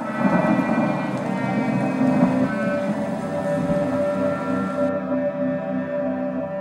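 Heavy, steady rain pours down with a low, rolling thunder-like rumble beneath it, alongside a sustained droning tone, with no voices throughout.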